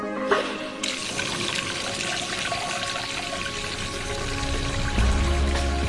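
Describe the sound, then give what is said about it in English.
Water gushes steadily from a truck into containers of all shapes and sizes, filling a community's week's ration of water; a continuous rushing pour that starts abruptly after a brief moment and stays fairly loud throughout, with no voices. “Wait for the truck that will fill those containers with their week's ration of life sustaining water.”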